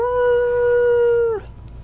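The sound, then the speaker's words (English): A single long howl from a stray hellhound, loud, holds one steady pitch for over a second before sliding down and cutting off, leaving a low rumbling background. “I note tooth clad jowls with the realization that I cannot escape the dog's attentions.”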